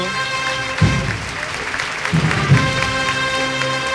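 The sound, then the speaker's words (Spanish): A large crowd applauds steadily during a street procession, a dense wash of clapping that holds for the whole stretch, with a few brief low voices and a faint sustained tone underneath. “Más aplauso.”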